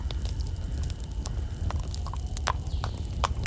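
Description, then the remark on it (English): Horse hooves clip-clop in a steady, uneven rhythm as a horse-drawn carriage rolls across a field in front of woods in a dark park, sharp knocks over a constant low rumble of wheels, moderately loud. “Just as we were about to leave, a horse drawn carriage came clanking up to us from across the field in front of the woods.”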